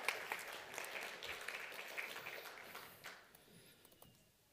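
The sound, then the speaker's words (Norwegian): An audience breaks into steady applause, a dense patter of many hands clapping that holds strong for a few seconds, then thins out and fades away toward the end. “Vi må gi ham en applaus.”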